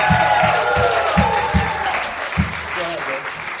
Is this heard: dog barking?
no